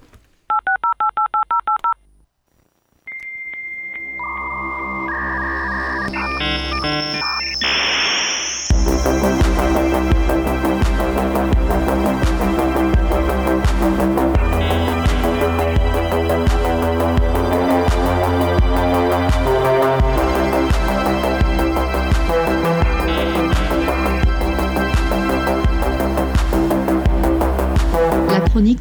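A radio segment jingle (high-quality station packaging by a producer) introduces Bastien's chronicle. It opens with a few telephone keypad beeps and rising electronic tones, then bursts into loud, full, layered music that plays on steadily to the end.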